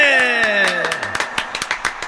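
Audience applause with a burst of sharp, irregular hand claps throughout, opening under a loud falling tonal sweep, like a whistle or cheer gliding downward, then continuing as scattered clapping.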